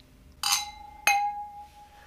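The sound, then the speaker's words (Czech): Two bright clinks of wine glasses touching in a toast, each a sharp strike followed by a clear, high ringing tone that lingers and slowly fades, with no talking. “A tož na zdraví. Takže i Připijeme vínem víno, i vodě.”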